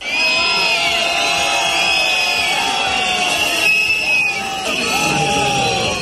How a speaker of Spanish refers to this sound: Bocinas, chalecos amarillos, silbatos, cencerros o petardos. El objetivo era que se les escuchase.